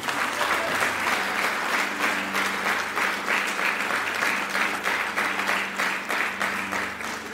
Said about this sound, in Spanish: El que es firme, dele un fuerte aplauso al Señor.